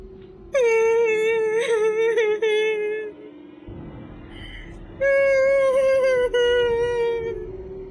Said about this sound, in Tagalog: Nakarinig ako ng iyak ng babae.